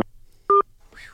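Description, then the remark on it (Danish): A short, loud dual-pitch telephone tone rings out once, a steady electronic beep lasting about a tenth of a second, followed by a faint warbling tone as the line cuts off, ending a phone call the hosts made. “Så, der blev han lige kottet af på ja.”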